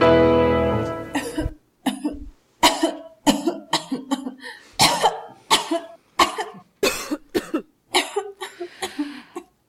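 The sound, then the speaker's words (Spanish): A prolonged, harsh coughing fit from a woman who smoked cigarettes and large cigars: loud bursts come in quick clusters of two or three, over and over for several seconds, following a brief sustained tone at the start. “No me extraña que tengas esa tos.”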